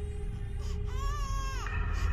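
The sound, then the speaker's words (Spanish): A small child cries out from up a hill in a single drawn-out, wavering wail that rises and then breaks off, heard over a constant low rumbling background. “Comenzaron a caminar en dirección a donde se escuchaba el llanto.”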